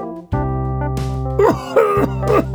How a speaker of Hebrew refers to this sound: אתה נורא משתעל, אתה מרגיש טוב?